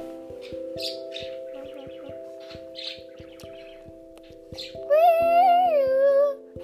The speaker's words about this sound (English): the squawking is from a bird that won't be quiet